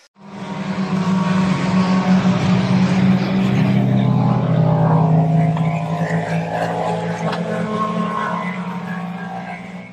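Loud, sustained engine roar of racing cars at the 24 Hours of Le Mans filling the whole stretch, a steady low rumble with shifting higher whine, no voices.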